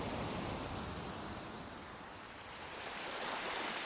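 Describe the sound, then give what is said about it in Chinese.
Distant flowing water makes a steady, hissing rush that fills the whole clip, dipping slightly in loudness around the middle before swelling again. No one speaks. “远处的流水声，让我们进入。忘我的仙境”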